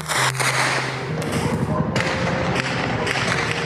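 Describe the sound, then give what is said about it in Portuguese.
Several sharp gunshot cracks from a police operation in Vila Cruzeiro, Rio de Janeiro, Brazil, go off at irregular intervals, echoing somewhat, heard from the region's hospital over a steady bed of background noise and faint indistinct voices. “Mais de 15 horas depois, o som dos tiros que aterrorizou os moradores ainda era ouvido do hospital da região.”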